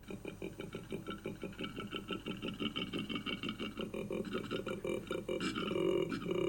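A koala's deep, rasping grunting bellow, a rapid string of rhythmic snore-like pulses that runs unbroken and swells louder and harsher toward the end, with no one talking.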